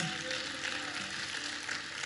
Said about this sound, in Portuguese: Aleluia. Glória a Deus. Aplauda o Senhor. Glorifique o nome dele.